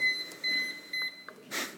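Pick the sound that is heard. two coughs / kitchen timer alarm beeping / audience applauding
kitchen timer alarm beeping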